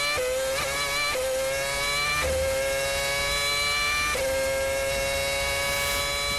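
A Red Bull Racing Formula One car engine ringtone: a high, whining engine screams through several sharp rising upshifts, each gear climbing in pitch before dropping and surging again, loud and continuous with no talking.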